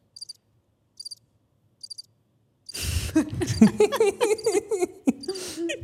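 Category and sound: sound effect, cricket chirping sound effect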